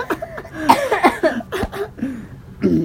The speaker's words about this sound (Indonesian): Aduh, batuk gue.